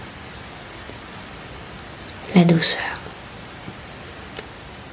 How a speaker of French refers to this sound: à une terrasse lors d'un sourire volé, dans le cri-cri incessant des cigales et le vent sur la peau.